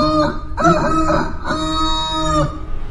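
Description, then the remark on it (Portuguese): A person imitates a rooster's crow with a loud, drawn-out cock-a-doodle-doo, rising and sustained in strong harmonic tones before trailing off, heard alone. “Este galo está na rua?”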